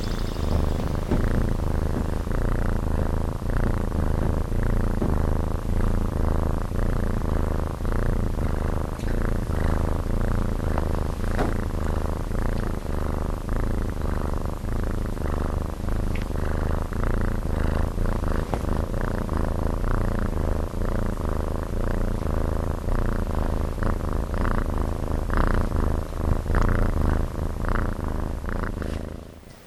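animal, cat purring

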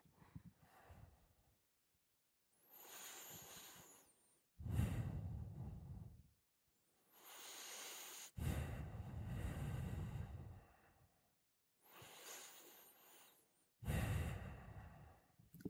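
human body sound, three deep breaths

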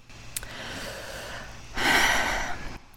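human body sound, deep audible breath

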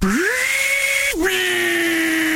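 tool, table saw running

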